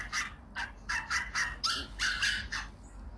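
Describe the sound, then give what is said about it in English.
A small dog, apparently a neighbor's teacup chihuahua, yaps in a rapid string of about eight or nine high-pitched barks, fairly quiet, with no voices present. “That sounds like the neighbor's dog.”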